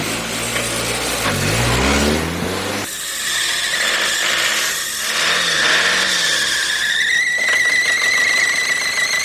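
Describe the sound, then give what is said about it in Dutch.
A car engine, checked over that morning, revs loudly up and down in the middle of Germany at two in the morning, its pitch sweeping low then climbing into a high, strained whine, with a brief squeal-like tone near the end. No talking. “Motortje goed, John? Ja, het motortje is, uh, heb ik helemaal nagekeken vanmorgen.”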